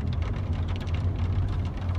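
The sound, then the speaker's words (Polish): Heavy rain pours down in a steady, dense hiss with a constant low rumble beneath it, loud, with no voices. The rain grows heavier, sheets of water pouring over a moving car. “Deszcz padał coraz mocniej. Co chwilę zalewała nas ściana wody.”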